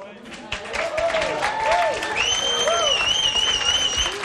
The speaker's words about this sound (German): einen herzlichen Applaus für euren Gastgeber